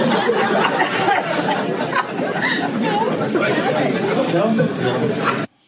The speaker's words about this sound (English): Yeah, and but I hear a lot of a lot of like whispering and murmuring.